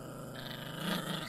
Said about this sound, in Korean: 몇 시간이나 지났을까? 개가 으르렁대는 소리에 눈을 떴다.